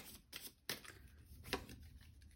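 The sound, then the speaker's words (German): Crisp riffling of playing cards being shuffled during a card game, with several quick bursts of papery flicks and snaps over a couple of seconds, no voices. “Die muss ich jetzt mischen”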